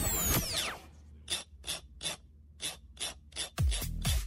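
A series of about nine short, bright rasping scrapes in a steady rhythm as something is dragged along the spiral binding of a notebook, framed by louder swooping noises at the start and end.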